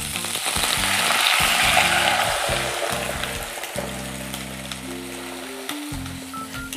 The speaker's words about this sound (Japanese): 音がうるさかったのでもう一回言うとエリンギと、えー、白菜そして水2 0 0トルが入りましたバチバチってねちょっと跳ねるので気をつけてくださいね